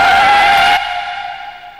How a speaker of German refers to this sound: Eine 90-Grad-Kurve. 42 Stundenkilometer. Nasses Laub eines Lindenbaums auf Asphalt. Die Haftreibung zwischen Reifen und Fahrbahn verringert sich. Das Auto verliert seine Bodenhaftung. Die Zentrifugalkraft trägt das Auto aus der Kurve.